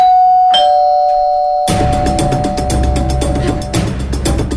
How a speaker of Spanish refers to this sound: Yo no sé vosotros, pero estos días cada vez que suena el timbre de casa